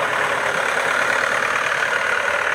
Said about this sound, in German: Jetzt fährt, glaube ich, ein Trecker vorbei.